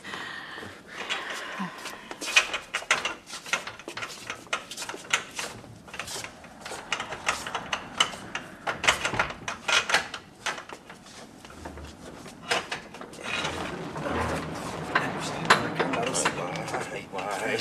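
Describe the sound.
A key grinds and clicks in a stiff old lock with repeated metallic rattles, then a heavy door creaks and scrapes open, with people talking in the background; the door had not had a key turned in it for more than a month.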